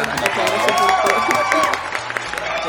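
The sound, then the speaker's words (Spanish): A crowd claps and cheers for Piricola in a dense, continuous, steady burst of applause, with crowd noise layered underneath throughout. “Muchas gracias, un aplauso, para Piricola, un, aplauso un aplauso, para Piricola.”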